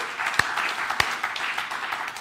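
Steady crowd applause, a dense wash of many hands clapping at moderate loudness, with a couple of sharper individual claps standing out early on. No one speaks over it.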